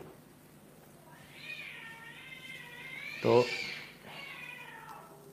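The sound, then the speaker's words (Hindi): Feral cats fight and yowl outside in long, wavering, drawn-out cries, rising into a short loud screech midway before trailing off, with a person briefly speaking underneath. “देखा दिल्ली का बनाने पे हाल होता है दिल्ली बोला और बिल्ली बाहर लड़ना शुरू हो गई तो भाई दिल्ली का मत बनाओ बिल्ली भी बिल्ली भी चिल्लाना शुरू हो जाती है दिल्ली का मुख्यमंत्री बनेगा मेरे यहाँ की बिल्लियाँ जंगली बिल्लियाँ भी चिल्लाना शुरू हो गई”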